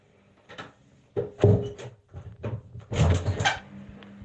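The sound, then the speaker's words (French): A toilet door, locked from the inside, is pulled and rattled open in several effortful bursts of knocking and creaking wood, with a low hum in the background. “Je vais essayer la technique de tirer plutôt que de pousser. Vous allez entendre en même temps.”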